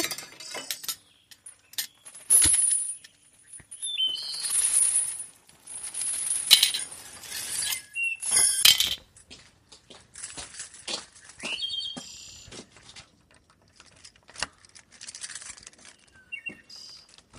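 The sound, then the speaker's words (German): Metal keys jangle and clink as they are picked up and handled, bright irregular rattles coming in bursts, louder at first and then lighter and sparser, with no voices. “Und jetzt die Wächter mit ihren eigenen Ketten gefesselt und rein. Ich nehme mir den Schlüssel.”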